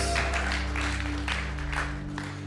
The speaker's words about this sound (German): Komm, wir geben Jesus einen fetten Applaus. Danke, Jesus.